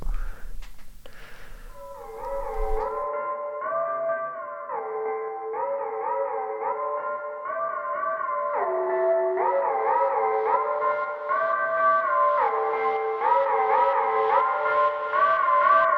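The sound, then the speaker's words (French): A rap song's intro plays: sustained, echoing synth chords shift step by step in a slow repeating pattern, fairly loud and steady, with no drums or vocals yet. “Et euh, ça sortira euh, ce mercredi en clip, donc on l'écoute en exclusivité.”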